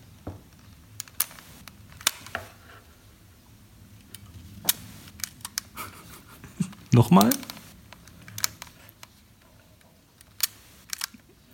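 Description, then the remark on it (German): Several sharp mechanical shutter clicks from a new half-frame film camera, then a short buzzing film-winding whir. A laugh and a brief spoken question come before them. “Ist eine neue Kamera.”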